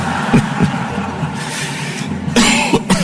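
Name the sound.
coughing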